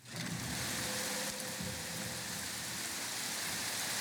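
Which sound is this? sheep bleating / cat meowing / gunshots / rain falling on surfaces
rain falling on surfaces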